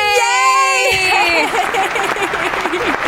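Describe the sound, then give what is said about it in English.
A studio audience applauds and cheers, opening with a loud drawn-out whoop that gives way to dense, steady clapping mixed with excited voices, lively throughout. “We have a lot of applause tonight.”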